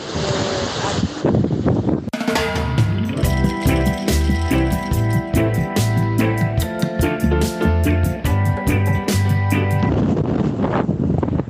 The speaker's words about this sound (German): Ich stehe jetzt hier im Atlantik, die Wellen tosen, die Kitesurfer sind in der Luft und das ist ein solches geiles, tolles Erlebnis.